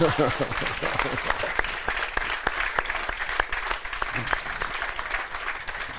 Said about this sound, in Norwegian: Applaus.